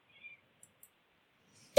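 A single thin, high-pitched meow from a kitten being played with, soft and brief, followed by a couple of faint ticks and a quiet pause before a sudden loud burst cuts in at the very end.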